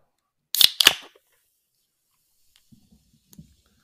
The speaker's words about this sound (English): That's a really good can crack, by the way.